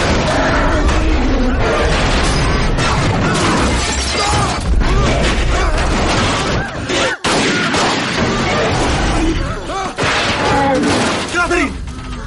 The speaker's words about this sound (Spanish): La sombra vuelve a aparecer y embiste la puerta donde está Catherine.